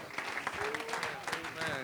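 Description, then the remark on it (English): Steady applause from a church audience welcoming a preacher to the pulpit, dense and continuous, with voices calling out over the clapping. “Clap your hands to Jesus tonight.”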